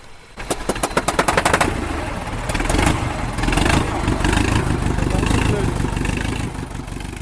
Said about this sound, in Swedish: är med och hjälper till för att få igång traktorn. Det krävs alla knep, motorvärmare, startkablar och startgas innan de efter flera försök får igång den.